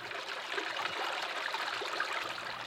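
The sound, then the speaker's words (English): Steady rushing water of Moores Creek pours continuously beneath a low-water concrete bridge, feeding a lake; a broad hissing flow with faint gurgles and no voices, holding an even loudness throughout. “Moores Creek, rushing beneath this low water concrete bridge, feeds the lake.”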